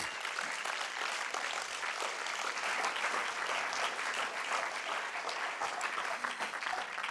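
Sustained applause from an audience fills the whole stretch, a dense, steady patter of many hands clapping at even loudness without pause, no voices standing out.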